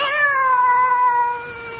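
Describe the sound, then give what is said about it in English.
A single drawn-out meow from a cat with green eyes, clear, its pitch sliding slowly downward before trailing off. No voices or other sounds accompany it. “So you've come back and in a form I've always thought of you as a cat.”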